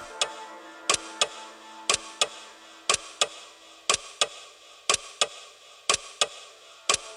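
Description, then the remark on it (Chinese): A living-room clock ticks steadily, its sharp clicks falling in tick-tock pairs about once per second over a faint, low background hum, with no voices. “客厅中的时钟。在滴答滴答的行走，这时的客厅沉默的可怕。”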